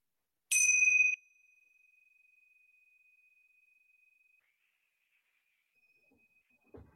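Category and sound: signal or alarm, small bells ringing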